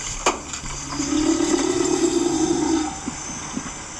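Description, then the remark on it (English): A female animal in an almost submissive body position vocalizes to a male approaching her: a low, buzzing call swells in over steady watery hiss, holds for about two seconds as the male gets closer, then fades, with a sharp knock just before it and a few soft grunts after. “hear the male getting closer.”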